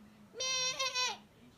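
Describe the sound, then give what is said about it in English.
A voice imitates a goat with one loud, nasal, wavering bleat lasting under a second, then only quiet background remains. “that sounds more like a goat.”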